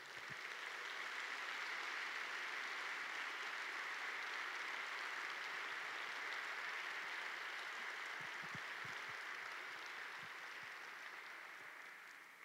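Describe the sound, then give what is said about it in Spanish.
A crowd claps loudly and steadily for about twelve seconds in applause for Jesus, a dense wash of many hands with no voices over it, tapering slightly at the end. “Dale un fuerte aplauso Jesús.”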